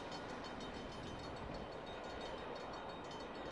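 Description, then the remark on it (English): A train sound effect, manually fired off as a livestream hype-train alert: a steady, loud rumble of a passing train fills the whole stretch, with continuous rolling wheel noise and a bright metallic hiss on top, no voices. “This is going to be the new hype train. But I have to manually fire it off, which is the only shitty thing about it.”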